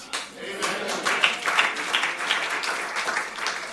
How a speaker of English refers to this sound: I'm glad you are clapping your hands.